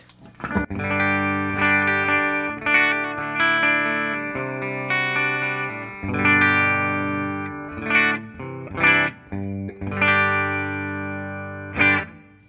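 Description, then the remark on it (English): An electric guitar played through a tube amp with the bright switch engaged, strummed chords ringing loud and trebly with a bit of grit, sustained and separated by brief pauses, no voices. “Turn the bright switch on and...”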